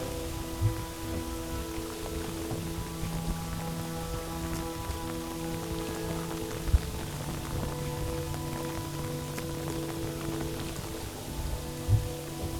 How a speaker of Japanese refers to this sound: 季節的には今新緑が出揃ったぐらいの季節なのでこの雨は植物にとってはすごい恵みの雨になってますでこの辺りからがあのマングローブが濃い空間になってきます